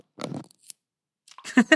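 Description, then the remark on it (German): The cap of a bottled Zombie cocktail is twisted open: a short scraping crackle, a faint click, a pause, then another rough burst of twisting and grinding. No one speaks. “Also hier, das wird hoffentlich irgendwie klicken, wenn ich das aufmache.”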